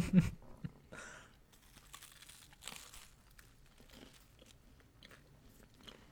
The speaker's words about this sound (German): Ja, so, bist du fertig? Ja, bin fertig. Dann lass uns mal genüsslich reinbeißen.